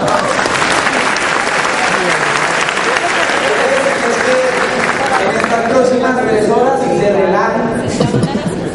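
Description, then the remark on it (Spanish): An audience applauds in welcome, steadily and loudly for about nine seconds, a dense wash of clapping with voices calling out and cheering mixed in toward the end. “Bueno, bienvenido, yo les un aplauso.”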